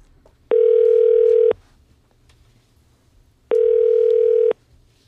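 telephone ringback tone

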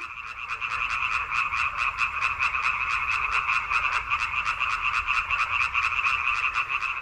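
frogs croaking

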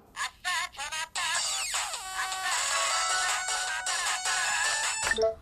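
phone ringing

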